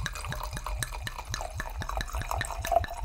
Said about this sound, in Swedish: det är kranvatten men jag, jag klämde i en liten citronskiva i och jag har, jag har också hällt upp det i ett vinglas för att få in känsla.